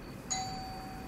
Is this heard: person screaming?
no